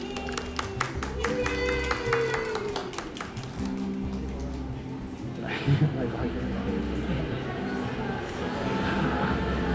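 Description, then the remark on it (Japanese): An audience applauds steadily for about ten seconds to welcome a coffee influencer at a live public recording also streamed on Instagram Live, the clapping dense and continuous, with faint voices mixed in underneath. “では皆様拍手でぜひお迎えください”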